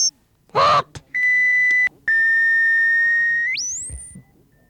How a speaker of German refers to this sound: Mein 9,7 Tonner heißt Rudi und ist rot. Mein 5,7 Tonner heißt Heini und ist schwarz-weiß gestrichen. Heini und Rudi können sich nicht unterhalten. Sie haben nur eine eingeschränkte Kommunikation. Sie können nämlich nur hupen.